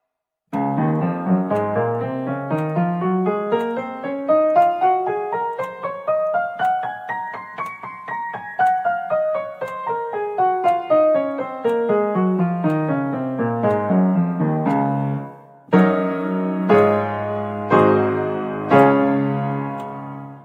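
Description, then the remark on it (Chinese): Piano plays a Hanon exercise in D-flat major, a steady patterned figure climbing up the keyboard and back down, then ends with several loud sustained block chords lying almost entirely on the black keys. No talking. “嗯，几乎全部都是黑键了，已经就是黑键上的和弦一定要手指完全撑住，不然会掉下来。好，我们连起来听一下。”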